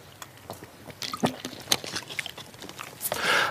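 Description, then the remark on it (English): Water splashes and trickles into a glass, a few seconds of uneven gurgling and dripping that builds to a brighter, fuller pour near the end. “Let me get a little more water.”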